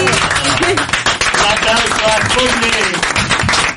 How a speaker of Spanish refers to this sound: Sí, les podemos aplaudir.